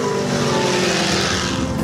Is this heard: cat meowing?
no